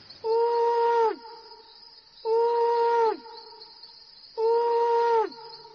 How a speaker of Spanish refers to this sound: Sid dormía plácidamente, tanto que el búho tuvo que ulular tres veces para despertarlo